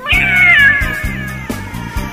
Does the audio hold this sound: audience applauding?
no